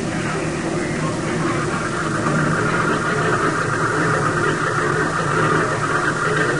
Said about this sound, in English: He'd be at the airbase waiting for my plane to get in. It was night, and the only sound was the idling of the engine.